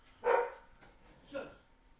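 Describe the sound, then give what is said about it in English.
A dog barks twice, a sharp first bark followed about a second later by a slightly softer one, with no other sounds around it; the dog is barking at kids playing outside. “It's just kids playing outside and the dog doesn't like it.”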